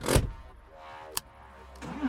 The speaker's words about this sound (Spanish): Arranca a toda velocidad con los aguinaldos robados como si fuera el mismísimo trineo de Santa Claus.